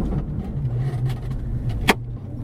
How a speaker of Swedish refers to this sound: Oj, vad det knakar i bilen.